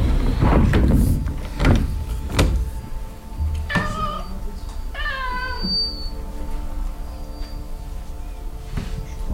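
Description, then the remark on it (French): A cat meows twice, with drawn-out harmonic cries, following a few sharp knocks and rattles like a door being handled, with no talking. “Un chat et un chat auquel on ouvre la porte pour qu'il puisse manger ses croquettes.”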